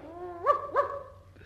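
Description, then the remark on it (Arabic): A dog gives a short whine that runs straight into two quick, sharp barks, moderately loud, with no one talking. “أقدر أخد أخويا معايا اللي هو الكلب ده”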